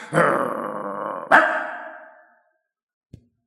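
A rough dog growl rumbles for about two seconds, rising again in a second harsh surge partway through, then fades into silence broken by one brief click.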